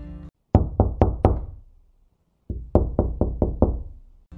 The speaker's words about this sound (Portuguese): Raul bate a porta de madeira da antiga prefeitura.